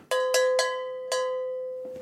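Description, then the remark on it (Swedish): A small cowbell is struck four times, three quick clanks then a pause before the fourth, each bright metallic hit leaving a sustained ringing tone that slowly fades. “Eh, nu tror jag att vi tar en sån här liten kobjällra, sen är det dags för rimstuga.”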